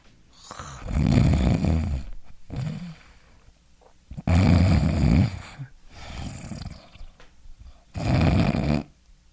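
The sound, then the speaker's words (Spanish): A voice imitates loud, rough snoring: three or four harsh, rattling snores separated by short silent gaps, forceful, with the last snore cutting off into quiet as the relaxed airway blocks the airflow and breathing stops. “Es así como suceden tres, cuatro ronquidos, entonces se relaja más la vía aérea y se interrumpe el paso del aire.”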